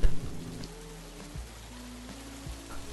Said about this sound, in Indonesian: Juni pun memberanikan diri menerjang hujan yang kini sudah semakin lebat